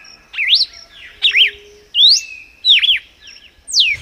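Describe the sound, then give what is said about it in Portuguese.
A red-cowled cardinal (cardeal do Nordeste), a Brazilian bird about 17 cm long, slightly bigger than a canary, sings a series of five loud, clear whistled phrases with swooping notes, evenly spaced, with brief pauses between and no voices. “Paulo Augusto descreva o cardeal do Nordeste pra gente.”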